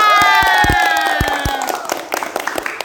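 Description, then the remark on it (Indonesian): An audience bursts into clapping and cheering, with a steady wash of applause, scattered sharp claps, and high shouts and whoops rising over the crowd noise before it thins out. “Oke milenial, ciwi-ciwi tepuk tangan dong untuk kita semua.”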